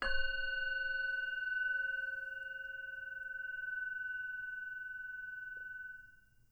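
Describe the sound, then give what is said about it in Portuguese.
A single bell is struck once to signal the end of a meditation practice, its clear metallic tone ringing out with several steady overtones and fading slowly over about six seconds, alone against quiet background. “permanecendo assim até ouvir o sino tocando, sinalizando o fim da prática.”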